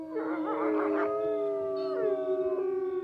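Wolves howl in a sustained, overlapping chorus, long wavering tones that rise, waver and slowly fall, fairly loud and continuous for about three seconds with no talking.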